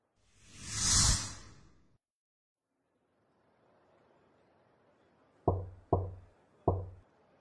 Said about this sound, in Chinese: 不紧不慢的敲门声将杜长从沉醉中唤醒，他不禁莞尔：“这么快回来干什么？”